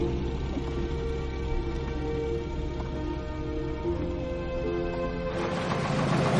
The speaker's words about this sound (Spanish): El coche llega a la aldea.